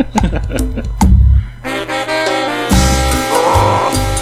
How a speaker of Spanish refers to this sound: Pura cumbia densa, perros.